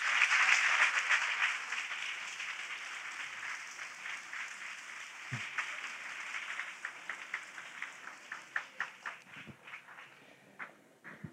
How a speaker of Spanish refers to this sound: Y ahora vamos a darle un aplauso a quien nos enseña a ser compañeros.